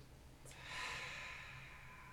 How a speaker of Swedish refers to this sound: Bara andas in. Och andas ut.